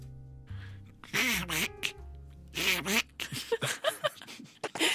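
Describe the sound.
A raspy, cartoonish duck voice, addressed as Donald, quacks and sputters in a string of loud bursts of garbled duck-like chatter over a faint sustained background tone, with a human voice imitating the sound.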